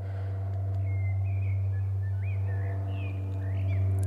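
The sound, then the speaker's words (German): An airplane flying overhead, heard from a hill after sunset: a steady low droning hum with layered engine tones that holds throughout, while a few thin bird chirps flit above it. “Jetzt kommt noch ein Flugzeug zum Abschluss.”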